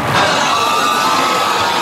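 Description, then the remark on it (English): A large crowd at the Kentucky Derby roars in a dense, sustained wash of voices, loud and continuous throughout with no distinct words, in stunned uproar after racing stewards disqualified the apparent winner for interference. “The crowd shocked.”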